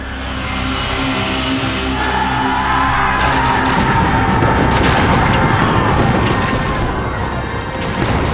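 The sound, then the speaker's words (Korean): A dense, continuous battle din of booming blasts, crashes and rapid gunfire-like bursts, loud and chaotic for the whole stretch with no speech, swelling as more layers of noise pile in, as the Later Jin army fires bows, guns and cannons at Ningyuan fortress held by Ming troops. “후금군이 활과 총과 대포를 쏘자 성유에 있던 명나라군은 일시에 불을 켜서 천지를 환히 비추고는 공사들은 후금 모란케를 향하여 화살을 날려라!”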